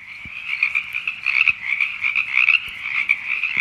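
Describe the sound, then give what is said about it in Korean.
A dense chorus of frogs croaking vigorously, a continuous buzzing trill of many overlapping calls with a steady, pulsing rhythm, fairly loud throughout with no voices. “네, 힘차게 우는 개구리 소리.”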